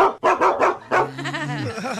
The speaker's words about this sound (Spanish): Mira, perro. ¿Qué, ¿Qué tranza? ¿Qué tranza? Bájale, bájale, mira, carnalito. O sea, perrito, no me ladres a mí tampoco, ¿eh?